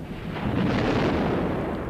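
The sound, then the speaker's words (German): A loud, deep rumble of a thunderstorm sound effect rolls on steadily for a couple of seconds, broad and booming, with no voices over it. “Du meinst dieses Ihr Gewitter?”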